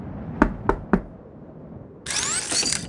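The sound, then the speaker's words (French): Three heavy, resonant knocks on a large door in quick, even succession, loud, followed after a short pause by a harsh mechanical whirring noise. “Allez, on y est Ça c'est de la porte, hein On fait quoi On toque”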